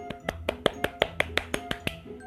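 Brief applause: about a dozen sharp, evenly spaced hand claps in a quick steady rhythm, with a faint sustained tone humming underneath and no talking.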